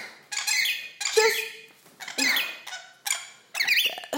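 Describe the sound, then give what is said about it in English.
Harsh, high-pitched squawks and squeaks from two pet birds fighting on a person's shoulder come in five rapid bursts, loud and scratchy. No one is speaking. “oh, birds. God damn. they fighting on my shoulder, and I'm trying, I'm really desperately trying to make myself a coffee.”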